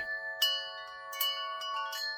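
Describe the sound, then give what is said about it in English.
A glimmering golden handbell, held by a man in a red Santa suit and black gloves, rings several times, each shake adding bright metallic strikes over a steady shimmering tone that lingers throughout. Heard alone and fairly soft, with no voices. “Over one shoulder was a red sack, and his other hand he held a glimmering golden bell.”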